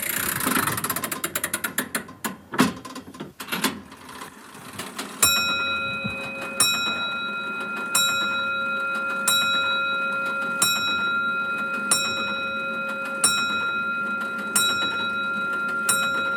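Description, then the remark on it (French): Ingmar Bergman's pendulum clock at his house in Faro, being wound up, ticks steadily after a few seconds of clattering mechanical clicks, while a bright chime rings out and keeps humming beneath the regular beats. “C'est troublant, l'ambiance réelle de la maison d'Ingmar Bergman à Faro, avec ses grincements, son horloge, dont vous pouvez entendre le carillon dans ses films.”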